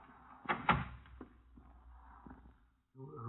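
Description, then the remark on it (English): A door opens with a couple of sharp knocks and a creak, followed by softer latch clicks as it settles shut; a voice begins speaking just afterward. “This door.”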